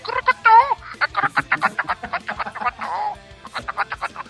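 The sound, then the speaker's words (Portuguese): A man makes a quick, rhythmic string of squeaky, warbling chirps with his voice, imitating a bird's calls in short repeated bursts to get a bird to sing. “Aí ah, canta, ele começa a fazer aqueles sons que na cabeça dele o passarinho tá entendendo.”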